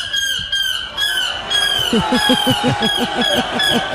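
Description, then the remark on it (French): A person imitates a seagull's cry as the winning entry in a world championship of seagull-cry imitation, with loud, shrill squawking calls, first drawn-out wails, then a fast rhythmic series of short yelping cries. “le championnat du monde du cri de la mouette, oh, l'imitation”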